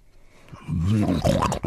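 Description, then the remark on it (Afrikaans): A human voice imitates pigs, giving a short burst of loud, throaty grunting and snorting, rough and nasal, alone, standing for three pigs rolling in the mud of their pen as they eat. “By die varkhok aangekom, hoor hy harde snorkgeluide. Hy loop tot by die draad. Binne in die hok is daar drie varke.”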